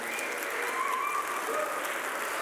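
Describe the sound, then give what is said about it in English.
Steady applause from a crowd at North Boulevard for the mothers on Mother's Day, a dense wash of many hands clapping at an even loudness for a few seconds, with no voices standing out above it. “Give the mothers a round of applause.”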